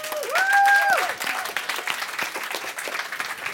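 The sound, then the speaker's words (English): An audience at a screening of the film How I Live Now applauds steadily, dense clapping throughout, with a brief high whistle-like tone rising over it in the first second before the clapping continues on its own. “You're right to clap. You are right to clap.”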